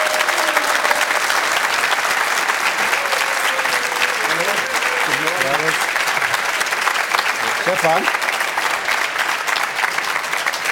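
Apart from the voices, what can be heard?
audience applause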